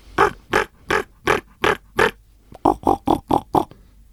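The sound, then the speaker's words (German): A person's voice imitates a raven, giving about a dozen harsh, throaty croaks in steady rhythm: six rougher calls, a short pause, then six quicker, lower ones, alone. “Ich sag mal, einen Raben können sie nicht pfeifen. Und wie geht der Rabe?”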